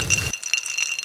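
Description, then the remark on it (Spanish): Glasses of absinthe mixed with mineral water clink together in a toast, a few bright, ringing taps whose tones linger and shimmer, briefly over a low rumble at the start. “Salud.”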